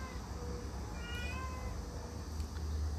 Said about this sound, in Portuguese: Para de persegui-la! Esse gato agora deu para provocar com a, a gatinha que está prenha. Né? Ele nem mexia, ele, como falei, eles nem brincavam. Agora está ele aí atrás da, da, da magnólia, tadinha.